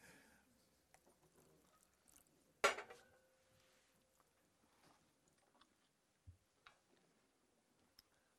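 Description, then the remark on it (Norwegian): Someone drinks water before beginning to speak: one sharp glassy clink rings briefly, followed by soft sips, swallows and small scattered clicks, with no talking. “Da må jeg begynne med å ta meg litt vann.”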